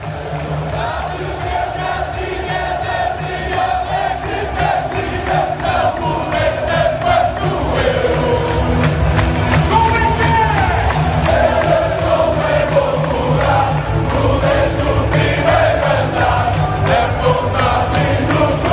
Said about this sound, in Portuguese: Então fica aí a torcida portuguesa, a claque portuguesa celebrando.